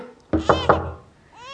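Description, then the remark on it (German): Three quick, evenly spaced, firm knocks on a door ring out briefly before a faint high-pitched whine rises at the end. “Schnell, Mutter, versteck den Kleinen, es hat geklopft. Dreimal.”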